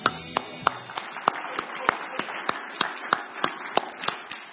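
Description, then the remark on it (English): One person clapping in applause of a 1983 baptism video shown on screen: a steady, even rhythm, about fifteen sharp claps at roughly three per second, moderately loud and unbroken for several seconds. “I'm going to applaud that.”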